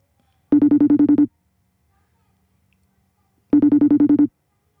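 A phone rings in two bursts, each a rapid warbling trill lasting under a second, separated by a pause of about two seconds; the tone is clear and moderately loud with no voices.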